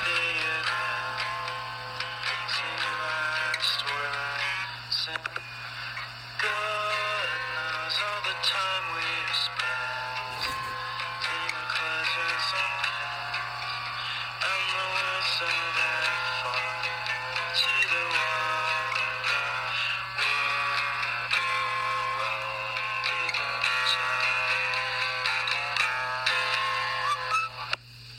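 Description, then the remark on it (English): A lo-fi demo recording plays back from a micro cassette tape, with continuous muffled music over a steady low hum and tape hiss, fairly even in loudness throughout, with no talking. “so the second uh, micro cassette tape”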